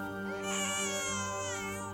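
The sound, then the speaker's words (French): A newborn baby's first cries just after birth, a high, wavering wail that swells and holds steady, fairly loud, over a low steady hum in the background. “J'ai entendu ses premiers cris qui m'a beaucoup soulagé.”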